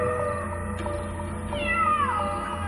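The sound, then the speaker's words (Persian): A cat meows once inside a room, the sound coming from within a closed built-in wall closet: a drawn-out call that starts high and slides downward in pitch, heard over a steady low hum with no talking. “ناگهان صدای میو میوی گربه ای از داخل اتاق به گوش رسید”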